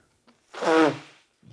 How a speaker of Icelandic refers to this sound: Þú tekur í nefið, heyr ég.